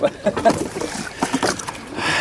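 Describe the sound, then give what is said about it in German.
A small boat is carried by hand and lowered into water, with uneven bumps, knocks and sloshing splashes over about two seconds, and brief voices or grunting sounds mixed in. “So, Boot haben wir zu Wasser gelassen”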